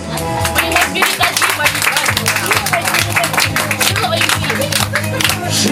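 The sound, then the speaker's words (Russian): Loud, sustained applause at a prize ceremony for the biggest zucchini: dense, rapid clapping from many hands fills the whole stretch at an even level, with a low tonal murmur running steadily underneath. “бурные и громкие аплодисменты, дорогие друзья, за самый большой кабачок.”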